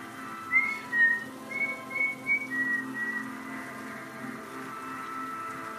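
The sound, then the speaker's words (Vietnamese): A man whistles a short, lilting tune of several high, clear notes over about three seconds while walking, rising and falling in pitch, before fading into a soft steady background hum. “Hắn thích thú, vừa đi vừa huyết sáo”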